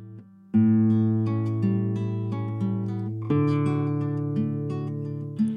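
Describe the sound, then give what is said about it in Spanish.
A guitar played by a doctor plays a slow sequence of notes, each plucked note ringing out and overlapping the next, clear with no voices. “Este episodio comienza con varias notas que provienen de una guitarra”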